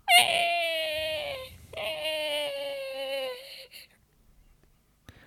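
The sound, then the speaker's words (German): A person imitates a newborn baby crying with their mouth: two long, strained wailing cries with a pitch that slowly drops, fairly loud, followed by a brief quiet pause and a small click. “Wo hast du den Sound her? Aus meinem Mund.”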